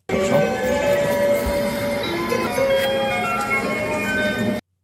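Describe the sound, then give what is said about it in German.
A bright electronic jingle melody, the station's own tune, plays over the steady rumble of a train station, tonal notes ringing clearly above the dense background noise for several seconds before cutting off abruptly. “bei der Bushaltestelle ist oder am Bahnhof, dann wird eine eigene Melodie eingespielt”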